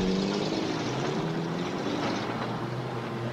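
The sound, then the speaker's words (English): A car engine, likened to the car in the film Jeepers Creepers, rumbles with a steady, low droning hum, loud, holding an even level for a few seconds with no voices. “Here comes the Jeepers Creepers car.”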